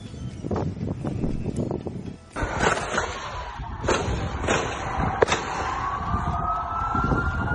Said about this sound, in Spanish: Si podemos ponerla, podemos escuchar el audio. Eh, creo que dice por ahí una, una grosería la persona, pero así se escuchó la balacera.